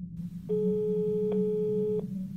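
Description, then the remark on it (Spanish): A telephone line tone after dialing: one steady, mid-pitched electronic beep lasting about a second and a half, clear and fairly loud over a low background hum, with no voices. “Marqué a su número y pronto escuché el tono demarcado.”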